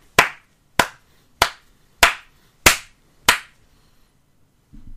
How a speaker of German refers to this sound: Ich habe sechsmal geklopft.